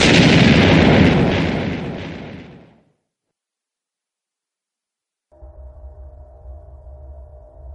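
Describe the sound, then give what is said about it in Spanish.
A huge explosion destroying a convoy roars and rumbles for a few seconds before dying away into silence, followed by a steady low mechanical drone with a faint higher hum. No voices. “Todo el convoy está destruido.”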